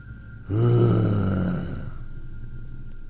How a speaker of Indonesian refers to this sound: Dan tiba-tiba Makhluk itu menjawab dengan geraman